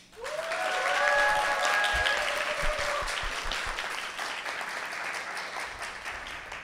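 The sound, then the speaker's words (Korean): An audience at a book concert marking a political book's publication, co-hosted by Munhakdongne and Hankyoreh 21, bursts into sustained applause, dense steady clapping that swells quickly and holds for several seconds, with a few cheers and whistles rising over it early on. “어, 지금부터 어, 듣도 보도 못한 정치 출간을 기념하는 문학동네 한겨레 21 공동 주최 북 콘서트 및 필독 콘서트를 여러분의 열화와 같은 박수로 시작하겠습니다.”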